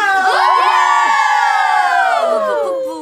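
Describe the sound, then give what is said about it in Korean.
A group of voices yells and cheers on cue during the segment Rookie Academy with Kep1er, in one loud, sustained burst of high-pitched shouting that holds steady for about three seconds before trailing off. “자, 텐션 조금 더 올려볼까요? 네! 소리 질러!”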